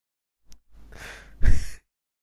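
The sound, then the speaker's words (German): A loud breath into the microphone: a brief click, then a long breathy exhale ending in a heavier, louder puff, with no talking. “Und ich konnte dich atmen hören und das stört.”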